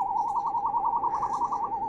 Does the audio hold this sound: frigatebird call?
yes